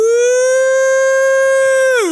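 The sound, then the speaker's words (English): A voice imitating a freight train whistle: a single loud, steady, high-pitched "woo" held for about two seconds before sliding down in pitch at the very end. “She understood about rejoicing, and, and I'm not recommending this, but she did this thing where she sounded like a freight train.”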